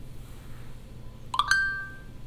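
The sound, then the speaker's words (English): A phone's TalkBack screen-reader shortcut, triggered by pressing both volume keys for three seconds, plays a brief electronic chime, a quick couple of bright tones that ring out and fade, heard alone over a faint background hum. “If TalkBack doesn't turn on right away, press and press both volume keys again for three seconds.”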